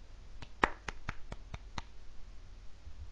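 Seven sharp claps in a quick, steady rhythm, fairly quiet, followed by a stretch of faint background hiss with no voices.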